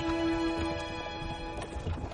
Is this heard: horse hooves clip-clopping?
yes